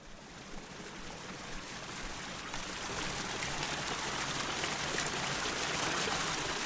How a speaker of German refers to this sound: Normalerweise werden in den Tonkrügen Sojabohnen und Chilipasta aufbewahrt, doch aus jedem Krug sprudelt durch eine Öffnung in der Mitte des Krugdeckels eine kleine Wasserfontäne. Die Krüge sind nun kleine Springbrunnen.